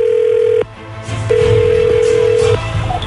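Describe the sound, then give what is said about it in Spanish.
Telephone tones over a low steady hum as a call is placed to a laundry: a short, steady electronic beep, a brief break with faint clicks, then a longer, level ringing tone at the same pitch. Nobody speaks. “No hables, voy a marcarle a la señora. en un minuto cae.”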